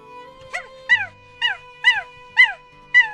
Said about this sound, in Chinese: 门外传来了狗叫声。原来棉婆婆养着一只狗，叫阿黄。棉婆婆起了身，为阿黄抱来了稻草，铺在阿黄的窝里。阿黄乐得汪汪叫。